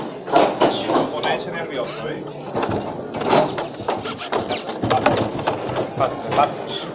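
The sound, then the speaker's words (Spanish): The heavy door of a brotherhood house swings open with scraping, creaking noises over several seconds at half past five in the afternoon, set against a steady murmur of a crowd gathered in the Plaza de la Purísima Concepción and scattered voices. “Y ahí creo que se ha escuchado con claridad cómo se ha, se ha abierto la, la, puerta de la Casa de Hermandad.”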